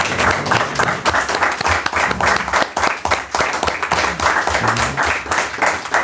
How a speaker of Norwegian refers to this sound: Ja, men Supert, og tusen hjertelig takk for at dere tok foran mikrofonen her. En applaus, da!